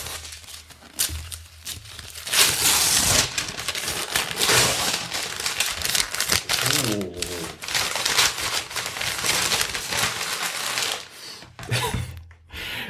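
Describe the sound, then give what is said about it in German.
Loud crinkling and rustling of plastic packaging being torn open and handled in front of a microphone as a parcel is unwrapped, with bursts of crackling and tearing throughout, and people talking intermittently underneath. “Ja, ich, also äh, soll, soll ich es vor dem Mikro auspacken, damit es auch besonders laut knistert?”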